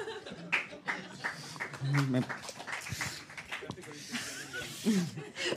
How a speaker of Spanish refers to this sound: ¡Qué aplauso más raro! ¡Qué raro!